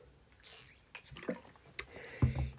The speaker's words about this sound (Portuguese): Preciso beber água.